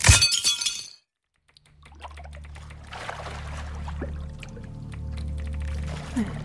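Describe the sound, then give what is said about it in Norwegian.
A crystal smashes with a loud, bright glassy shatter and tinkling debris for about a second, then brief silence before a low, steady rumbling drone swells in. “tar krystallen og knuser den.”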